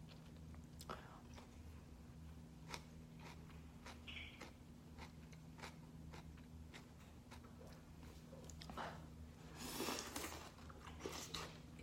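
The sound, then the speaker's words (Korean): Quiet chewing and biting of a tomato, with scattered wet crunches and clicks, steady over a low background hum, ending in a slightly louder burst of juicy mastication. “음, 이게 말로만 듣던 먹으면서도 배고픈 그런 건가 봐요. 토마토는 안 될 것 같습니다.”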